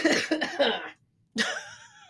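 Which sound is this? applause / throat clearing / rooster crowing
throat clearing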